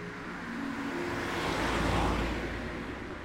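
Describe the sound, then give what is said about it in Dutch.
Street traffic at a street corner in the seventh district hums steadily, with one vehicle swelling louder as it passes by, then fading back into the general road noise. “Deze banale straathoek in de zevende wijk.”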